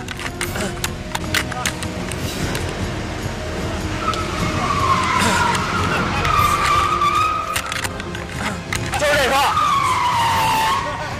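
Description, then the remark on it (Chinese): A car driven by a drunk man drifts around the neighborhood, its tires letting out long, wavering squeals that rise and fall in two loud stretches over a rumbling engine, with some indistinct voices in the background. “跟着我这周边是玩了半天漂移不说完，还又又又跟这辱骂。”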